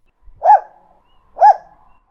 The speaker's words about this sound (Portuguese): Sherlock levantou uma orelha. Ela latiu.